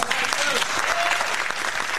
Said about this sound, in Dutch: Jongens, eh, ik vond het een eh, groot succes deze keer. Ja, daar daarvoor ja. applaus.